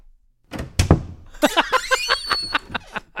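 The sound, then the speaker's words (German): A door being opened, starting with a solid thunk and then a quick run of about ten rhythmic rattling, squeaky bursts. It is fairly loud, with no talking. “Da würde ich, glaube ich, jeder Tür das Geräusch aufnehmen, ja, hier von der Tür hier vom Boblo.”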